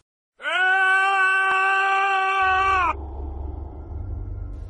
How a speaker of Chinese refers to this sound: 那是迄今为止我听过的最惨烈、最痛苦的喊声。